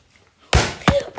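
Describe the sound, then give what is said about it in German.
A heavy object crashes down hard onto an iPad, followed by two more loud bangs with a brief clattering ring, all within about a second, with no talking. “voll auf Russell, also voll aufs iPad drauf”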